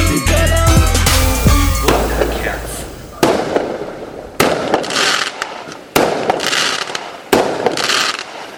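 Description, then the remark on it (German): Fireworks and firecrackers burst in a noisy sequence: a dense crackling opening with whistling tones, then four sharp, loud bangs at roughly even intervals, each followed by a hissing, crackling tail. “Let me Böller, Blitzknall, Luftheuler. Let me Böller, Fontäne, Seeböller. Let me Böller, Feuertopf, römisches Licht.”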